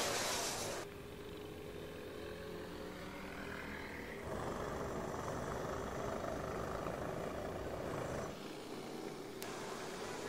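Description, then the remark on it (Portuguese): Small kart engines drone and rev steadily nearby, a continuous buzzing roar with shifting pitch, loud and close, with no voices over it, during a 500-mile kart endurance race. “E o Grum está ali, pertinho dos motores”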